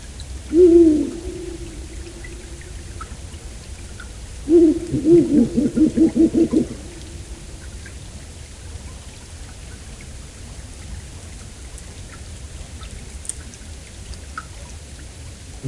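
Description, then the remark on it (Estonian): A female owl calls the male to the nest with one short hoot, then after a pause a longer run of quick, wavering hoots, clear over a steady background hiss like light rain. “ja sellist häält teeb isaslindu pesa juurde kutsuv emaslind.”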